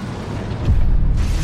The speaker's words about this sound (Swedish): De lunkar långsamt längs med relingen när de plötsligt hör en kraftig explosion och känner hur hela skeppet skakar till.